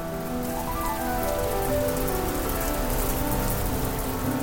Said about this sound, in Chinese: 突然间，一阵大风吹来，雨滴答滴答的下了下来。